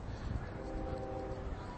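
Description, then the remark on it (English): A train rumbles along under steady outdoor background noise, with a faint, sustained tonal whine drifting in midway and fading out again. Quiet. “I can hear a train as well. You might be able to hear the train.”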